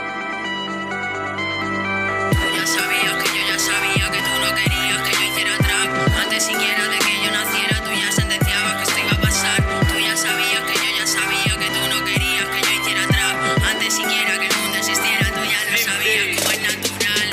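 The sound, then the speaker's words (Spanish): A female rap group's song's instrumental intro opens with a couple of seconds of sustained chords, then drops into a loud, punchy hip-hop beat with steady kicks and dense layered backing, no vocals yet. “Y bueno, os dejamos con uno de nuestros grupos favoritos,”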